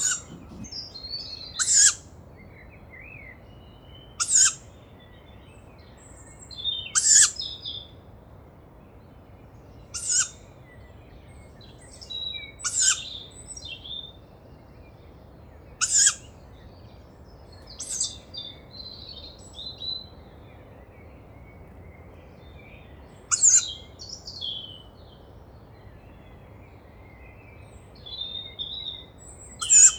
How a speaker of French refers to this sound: Et là il y a une jeune chouettulotte juste au-dessus de moi.